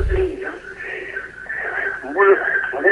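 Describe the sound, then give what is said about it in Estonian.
A caller's radio plays loudly in the background of a phone line during a call-in, its broadcast voices coming through steadily and a little muffled for the full few seconds. “saate raadio vaiksemaks keerata, muidu me ei saa teie küsimusest aru.”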